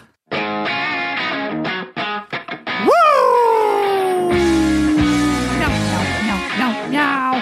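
A band's intro song blasts out, led by a loud, distorted electric guitar riff with choppy stabs, then a long sliding bend that rings out before the rhythm resumes. No one talks.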